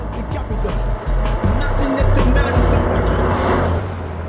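A bright yellow Daihatsu car rolls past with loud, bass-heavy hip-hop thumping from inside, the booming beat swelling and then dropping away as the vehicle moves off.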